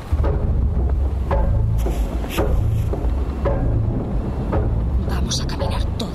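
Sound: thunderstorm with rolling thunder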